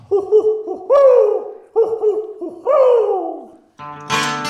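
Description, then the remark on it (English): An owl hoots loudly in two rhythmic phrases, each a few short hoots ending in a long, drawn-out descending hoot, followed by a brief harsh, buzzy call at the end. “And you have an opportunity to interact uh-huh. with an owl.”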